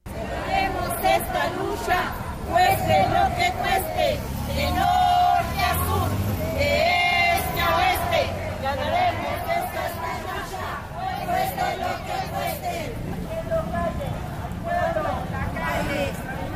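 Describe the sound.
A crowd of more than 500 marchers, mostly mothers searching for missing children, chants and calls out together while marching from the Monumento a la Madre toward the Ángel de la Independencia, their massed voices loud and continuous, with overlapping shouts rising and falling throughout.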